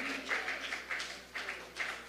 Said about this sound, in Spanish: alguien que crea que hay un Dios sensible que tiene cuidado de nosotros, que le brinde un aplauso dirigido hacia su corazón en esta hora. Aleluya.